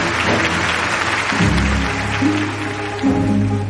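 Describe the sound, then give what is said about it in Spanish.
An audience at a stage magic show applauds steadily and densely throughout after an elephant and a man vanish, a sustained wash of clapping with low, gliding musical tones sounding underneath. “El público aplaude entusiasmado.”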